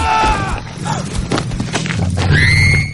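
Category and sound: animal, horse neighing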